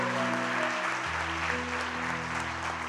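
A church audience applauds for Jesus with dense, steady clapping for about three seconds, while a sustained keyboard chord holds underneath and a deeper bass note joins partway through.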